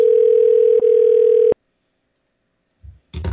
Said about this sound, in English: Mike. Answer the phone.